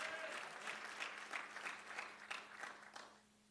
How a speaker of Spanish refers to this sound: Dele palmas al Señor.